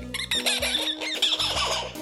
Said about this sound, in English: A spider monkey.